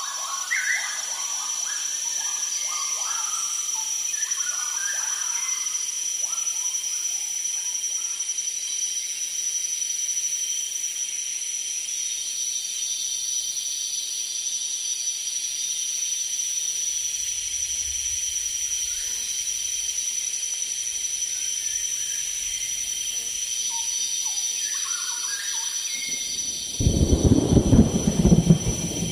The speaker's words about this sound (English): we listen to a recording of Bernie Krause made in Borneo. In his practice, Krause has built a special bridge between sound art and biology.